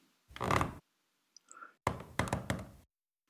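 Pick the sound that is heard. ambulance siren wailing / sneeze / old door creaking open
old door creaking open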